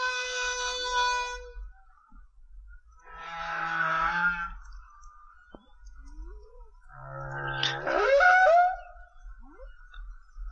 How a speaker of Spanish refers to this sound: Bueno, eh, esto que estamos oyendo, eh, evidentemente, es el canto de una, de una ballena jorobada macho. Y tuvimos ocasión de grabarlo in situ, ¿vale? Esto es, eh, esta ballena estaba, estaba descansando en el fondo, que estaba a unos 20 o 25 metros